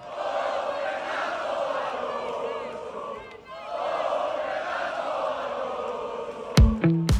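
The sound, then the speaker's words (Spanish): Racing fans in a big crowd chant Fernando Alonso's name in unison, loud and sustained, dipping briefly mid-way before the chant resumes, with a sharp horn-like blast near the end. “ese es el gritico de oh Fernando Alonso”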